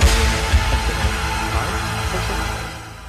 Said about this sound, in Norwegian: Dette her er stemningsmusikk